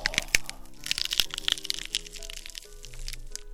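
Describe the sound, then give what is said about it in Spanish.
Loud cracking and creaking of a classroom seat giving way as a huge brown bear sits on it: a burst of sharp snaps and splintering crackles over several seconds, with a strained groaning tone beneath. No voices. “en cuanto Boris se sentó, en todo el salón se sintió un gran crujido”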